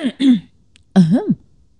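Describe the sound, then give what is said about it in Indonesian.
A fairly loud throat clearing: two quick gravelly bursts, a short pause, then a longer rough cough-like clearing with a rising and falling voiced tone, followed by silence. “agak batuk ya, maaf ya.”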